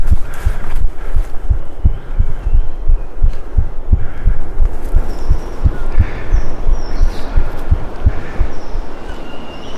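A person's own heartbeat, recorded by them during a hurried walk on a field trip to record wild gibbons, thumps steadily and quickly, deep muffled pulses repeating throughout with a low rumbling background, while faint high-pitched chirps come through now and then.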